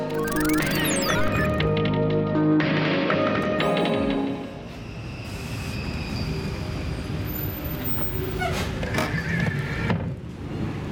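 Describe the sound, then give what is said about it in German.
A tram at Zürich main station rolls past with a steady low rumble, high squealing tones from the wheels and rails early on, then a rattling, clattering run of noise that continues to the end. “Meist schaffe ich es gerade noch so aufs Tram an HB.”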